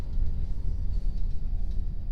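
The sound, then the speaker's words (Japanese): A steady low rumble of road and engine noise from inside a car being driven through Takanodai, Nerima ward, near the Kan-Etsu Expressway entrance on a holiday, continuous and fairly loud with no voices. “はい、運転中なんですすいません氷川神社に二礼二拍手、はい、ありがとうございます、えー、もう練馬区高野台に行っちゃいましたねもうちょいで八原です関越の入り口近くですね妙に空いてると思ったら今日は祝日か”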